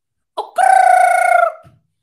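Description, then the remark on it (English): A person imitates a rooster's crow: a short yelp, then one loud, sustained, strained cock-a-doodle-doo lasting about a second, with no other talking. “Bird call.”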